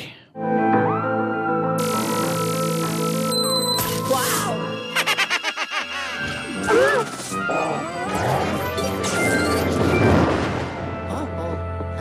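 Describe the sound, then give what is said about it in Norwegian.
Busy sound effects from a ghost-hunting video game on the Nintendo 3DS: sustained electronic tones and chimes give way to a rapid string of loud crashes and clattering bangs, with cartoonish vocal noises mixed in toward the end. “Det her er altså lyd fra Luigi's Mansion 2, som er ute til Nintendo 3DS”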